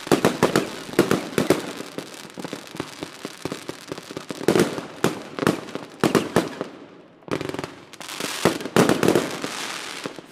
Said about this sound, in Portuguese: Festa de fim de ano é sinônimo de fogos de artifício não só aqui no Brasil, mas em várias partes do mundo.